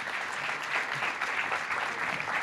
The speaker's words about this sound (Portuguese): Évora, eu acho que eh, merecem um duplo aplauso neste momento. Acho temos que, sim, que fazer uma pausa.